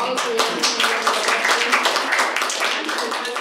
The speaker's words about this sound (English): applause.